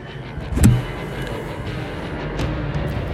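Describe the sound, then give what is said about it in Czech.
An airplane roars steadily overhead in Chiang Mai, Thailand, a dense, rushing engine rumble that stays fairly loud throughout, with a brief sharper swell early on and no voices. “A tady slyšíte čiangmajské letadlo.”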